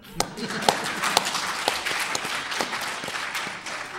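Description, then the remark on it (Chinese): An audience applauds with dense, steady clapping that fills the whole four seconds, a few sharper individual claps popping out above the crackling wash of sound. “大家为他这句话鼓鼓掌。”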